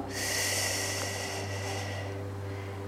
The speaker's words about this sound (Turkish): Kocaman büyük bir nefes alıyoruz.